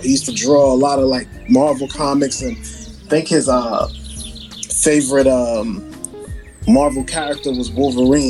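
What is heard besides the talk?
birds chirping outside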